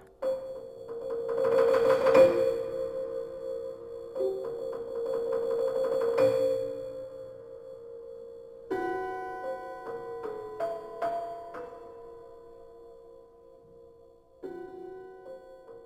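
Prepared piano played as a percussion instrument, sounding gong- and bell-like tones: sustained metallic resonances with buzzing, rattling attacks, then several struck bell-like notes ringing out and fading, no voices.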